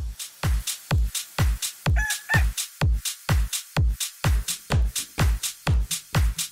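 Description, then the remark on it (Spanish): A rooster crowing in a loud, clipped burst of repeated calls, about seventeen quick even pulses in steady rhythm with no one talking over them. “Eh, gallo, eh, gallo tapao, gallo tapao.”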